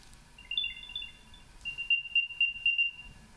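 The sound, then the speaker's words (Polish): A Find My item tracker on a set of keys plays its high, electronic chime after 'play sound' is selected on the phone: a quick run of bright tones, then a steady string of about five repeating beeps, clear, with no one talking. “tu mam rzeczy, tu mam rzeczy i mam od razu wybrane znaleźć przedmioty klucze, e, to powiedzmy sobie tak, klucze, klikam sobie mhm. i mam odtwarzaj dźwięk.”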